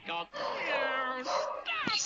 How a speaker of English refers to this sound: My dog is barking for some reason.